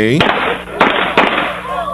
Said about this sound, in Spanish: Se escuchan unos disparos.